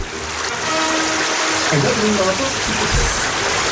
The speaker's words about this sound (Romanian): Cred că a venit apa da, Da, da, da, da, da. Dar acum, băi, când auzi, ce frumos curge. Ce frumos curge.